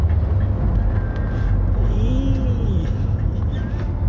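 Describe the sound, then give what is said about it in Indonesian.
A loud truck rumbles past at midday, its deep engine roar filling the whole four seconds, with a brief rising and falling whine riding over the heavy low drone. “ya Allah nih asli truk gila banget siang bolong kok ada”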